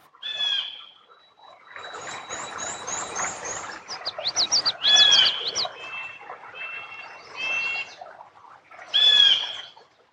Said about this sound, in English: Thief. That's a blue jay calling.